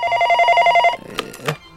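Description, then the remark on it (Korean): A telephone rings with a fast, trilling electronic warble lasting about a second, loud. The ring then cuts off and is followed by a couple of short clicks and rustles. “소문 잘 내고 계시는지 확인 전화할 수도 있”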